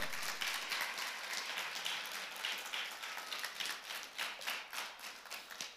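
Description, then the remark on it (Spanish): A church audience claps for the Lord during a sermon in a sparse, lukewarm way, a steady patter of many hands at moderate volume that slowly thins out, with no voices over it. “Ese aplauso suena más enojo, como diciendo, mire, aplaudo porque usted nos dijo, pero nos está diciendo cosas que no me dan ganas aplaudir.”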